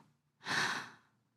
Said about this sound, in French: Et tu te rends compte qu'avec cette voix et une grande respiration,